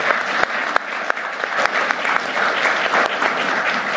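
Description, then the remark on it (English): A room full of people applauds steadily, a dense wash of clapping with sharp individual claps popping out, sustained at an even, fairly loud level for the whole few seconds. “So we're going to, yes, let's give a hand.”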